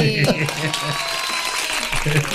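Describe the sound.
A steady burst of clapping fills the whole stretch, dense and fairly loud, with voices talking and calling out over it.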